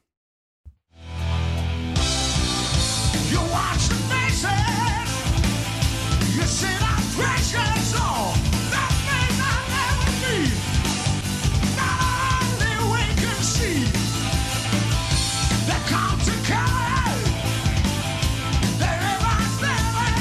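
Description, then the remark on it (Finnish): A live rock performance from a Juhlaviikot (festival weeks) gig, with a loud, dense full band and a strained, soaring male vocal, crowd-like energy throughout after a brief quiet start. “eli tämä koko juhlaviikkojen keikka löytyy … YouTube-kanavalta.”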